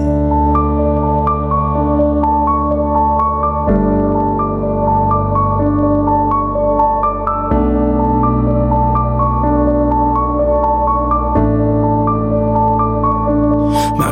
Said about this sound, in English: Listen to this, everybody, especially the very end of the song.